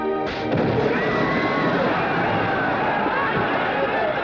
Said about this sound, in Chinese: 爆炸不算成功，只不过让司令落了一身土，但是引起一场巨大的骚动